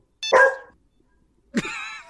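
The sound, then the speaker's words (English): A dog barks twice, fairly loud: one sharp bark, a second of silence, then a longer, drawn-out bark with a whiny tone. Nobody talks over it. “Wait, yeah, can you do the phone sound that'll say hello and then you do the bark?”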